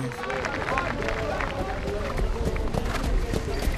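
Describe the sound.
Dense crowd ambience at the Hippodrome de Vincennes racecourse in Paris at the start of a harness race: steady, busy murmur of many voices all around, with occasional louder calls and shuffling, continuous throughout.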